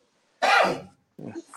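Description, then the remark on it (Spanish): A single loud, sudden sneeze bursts out and fades quickly, followed after a short pause by a brief voiced sound. “¡Salud!”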